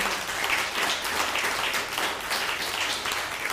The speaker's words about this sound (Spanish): Tu fuerte aplauso al Eterno. Baruch Hashem.